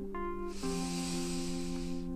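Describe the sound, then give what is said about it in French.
A long, airy breath drawn during a Tai Chi Chuan breathing exercise, a steady hiss lasting under two seconds, over a soft sustained musical drone in the background. “Une bonne respiration.”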